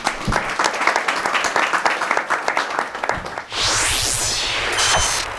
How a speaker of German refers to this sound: Also Bitte nochmal ganz großen Applaus für euch selbst und wir sagen Tschüss.